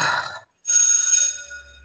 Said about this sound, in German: Und jetzt da, werde ich die Glocke läuten. Wir sind beim Man's Money in the Bank Ladder Match.